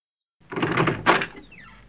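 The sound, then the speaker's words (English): A door is opened in answer to knocking, with a rattling, scraping creak, a firm thump as it swings, then a thin squeaky whine trailing off as it settles. “I'm going to go and open them, open my door and give them a piece of my mind, I'll tell you what.”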